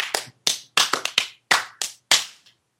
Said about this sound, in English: is that what that clapping meant? Is that like a new conlang thing?